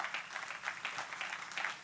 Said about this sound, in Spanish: Den un aplauso al Señor, Señor en esta hora.